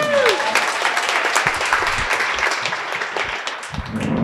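An audience claps steadily throughout, a dense, even wash of applause with a few brief tonal sounds at the start and faint voices mixed in.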